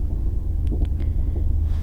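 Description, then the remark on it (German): A steady, deep low-frequency rumble of a night train in motion travelling to Vienna, constant and loud, with a few faint brief clicks and rattles over it and no talking. “Und jetzt bin ich im Zug, im Nachtzug und wir fahren nach Wien.”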